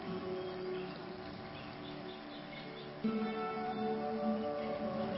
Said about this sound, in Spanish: Sí, un, un sonido de chicharreo, también lo estoy escuchando.